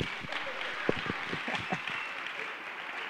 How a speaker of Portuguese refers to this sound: Ah, dá uma salva de palmas para vocês.